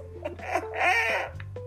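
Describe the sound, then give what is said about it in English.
A chicken clucks inside a house, a few short clucks rising into a longer, harsher squawk before trailing off, with a steady low hum underneath and no one talking. “Okay, so he shot a video because a chicken came into his house.”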